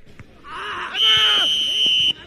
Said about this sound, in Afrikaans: Die skeieregter blaas die fluitjie en die wedstryd gaan aan.